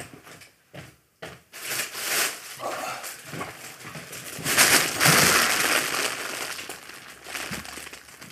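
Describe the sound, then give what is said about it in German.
Loud, continuous crinkling and rustling of a large bag of snacks holding popcorn, sweets, potato chips and Flips, with sharp crackly bursts that swell and fade over several seconds and no voices. “Also, ist hier so ein großer Beutel.”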